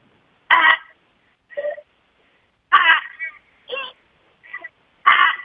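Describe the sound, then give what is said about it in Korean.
Narrow-mouthed toads at Sukji Ecological Park call in a steady back-and-forth series of short, loud, nasal honking croaks, about seven in all, alternating between two slightly different tones with brief gaps of silence between them. “숙지생태공원에서 어, 가장 인기가 좋은 맹꽁이 소리 내도록 맹꽁이, 하겠습니다.”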